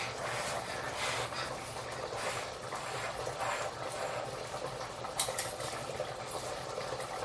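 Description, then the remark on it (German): A pot of pasta water at a rolling boil, a steady bubbling and hissing that continues evenly throughout without any talking. “Ja klar, kommt ja aus kochendem Wasser.”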